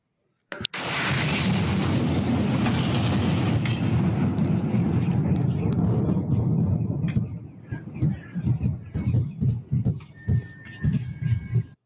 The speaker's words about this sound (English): You guys hear all the car alarms going off background.